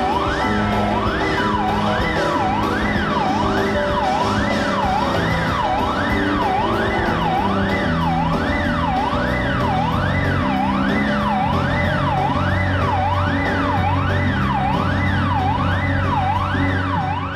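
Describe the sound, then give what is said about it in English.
A siren-like woo-woo tone swoops up and down steadily, about once per second, riding loudly over a dense music track with heavy bass and constant percussion. “this kind of sound, this woo, woo, woo, it's like police siren sort of yep.”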